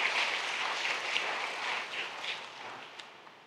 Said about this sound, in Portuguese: Vamos dar mais um aplauso poderoso aí, queridos, para Jesus.